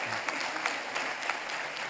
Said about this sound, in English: If you're here, yeah, we can clap for that. That's I'm going to run around while you clap, all right?